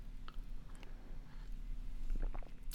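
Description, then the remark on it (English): Someone sips water: quiet, wet mouth clicks and a soft gulp or two, spaced irregularly over a low, steady hum, with no talking. “I'm going to take a sip of water, and then we're going to get into the next paragraph.”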